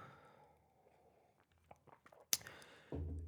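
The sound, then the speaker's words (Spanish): Quiet sipping of coffee, with a few soft slurps and mouth noises, a sharp clink like a cup being set down, then a louder burst of noise. “Voy a tomarme un sorbito de café, perdón, tengo la garganta un poco seca.”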